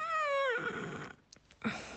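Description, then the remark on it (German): A drawn-out vocal yawn made while stretching, a voiced tone gliding downward and trailing into a breathy exhale, fairly loud, then a few soft breath noises and a short final sigh. “Und wenn ihr den gefunden habt, dann strecken wir uns und recken uns und gähnen und machen Töne, sowas wie”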